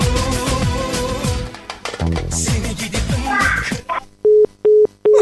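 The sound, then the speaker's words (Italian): A busy stretch of music and chatter cuts out, then an outgoing call's ringing tone sounds three times: steady, evenly spaced single-pitch beeps, loud and clear on their own. “Squilla, questo risponde, sono sicuro che risponde.”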